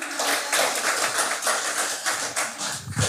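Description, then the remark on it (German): An audience applauds for the Lord: a steady, dense patter of many hands clapping together, holding at a fairly strong level for about three seconds with no voices over it. “Dürft ruhig mal klatschen dem Herrn.”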